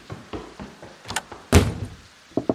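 A door is handled: a few soft clunks and rattles, then a loud, resonant bang as it shuts, followed by two quick latch clicks. No one speaks.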